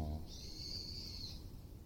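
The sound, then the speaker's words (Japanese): A bird calls faintly outdoors on a mountain in Shunan City, Yamaguchi Prefecture, Japan, on the walk up to the summit, a thin, high, drawn-out note lasting about a second, with a brief bit of a voice at the very start and soft background rumble. “聞こえないかななかなか、聞こえづらいかもしれませんが、何か鳥が鳴いておりますね。”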